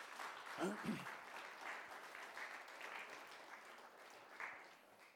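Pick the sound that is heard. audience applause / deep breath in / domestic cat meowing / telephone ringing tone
audience applause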